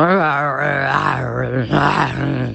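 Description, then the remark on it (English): A person imitates the grunting growl of a big beast that sounded like a bear or a dog and about the size of a cow, with one loud, sustained, rumbling roar that rises and swells over about two and a half seconds, unbroken, with no talking. “I heard a grunting beast noise coming from uh, around the corner and it was a um, it's it sounded a bit like a bear or a dog but it was a big animal. It sounded about the size of a cow.”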